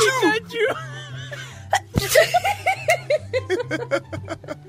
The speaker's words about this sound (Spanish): Ahora no jodimos, ahora este está buscando sonido de estornudo.